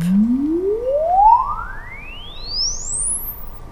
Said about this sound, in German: Und dieser sucht sich dann selbstständig einen Weg durch den Gang. Dann gibt er ein sonderbares Geräusch von sich, einen sogenannten Sweep.